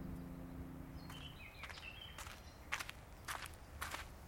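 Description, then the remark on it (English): Five or six footsteps of a woman fall at a steady walking pace, growing slightly louder as she walks up, over faint outdoor ambience with brief high chirps and a low hum that fades early. “This final time, she walked up to me.”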